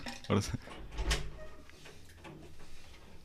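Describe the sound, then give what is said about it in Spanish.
A door is opened for a dog: a couple of sharp clunks and a rattling scrape in the first second or so, followed by softer shuffling while muffled voices talk in the background. “Si quieres abrir la puerta para que no...”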